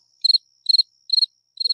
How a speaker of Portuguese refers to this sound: Vamos, vamos ver aí se, se o grilo vai cantar